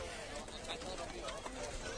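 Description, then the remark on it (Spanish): Horses' hooves clip-clop in an uneven rhythm, mixed into a steady outdoor murmur of voices and crowd noise, as pilgrims mingle with the horses on the pilgrimage to El Rocío. “Los peregrinos también eh, se, entrelazan con los caballos.”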